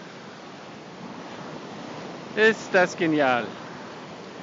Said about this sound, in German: Die schönste Stelle der Insel. Die Wellen kommen von links und rechts.